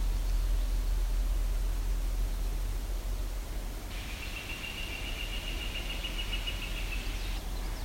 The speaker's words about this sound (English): Uh, that's a northern flicker. That's a call from another northern flicker.